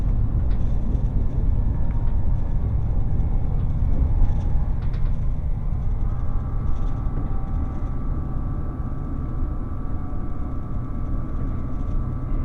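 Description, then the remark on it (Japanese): A steady, heavy low rumble of the Relay Kamome No. 3 limited express train running on the rails from Hakata toward Kohoku, Japan, with faint mechanical whines and tones rising above it, heard from on board as it slows toward Saga station. “耳で楽しむ鉄道旅 リレーかもめ3号 博多→江北”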